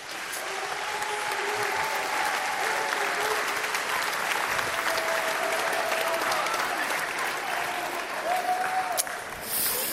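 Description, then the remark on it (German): Steady audience applause welcoming a speaker fills the whole stretch, a dense wash of many hands clapping at an even loudness with faint voices murmuring beneath, before it thins out at the very end. “Komm, wir mit einem herzlichen Applaus noch ein bisschen willkommen heißen hier.”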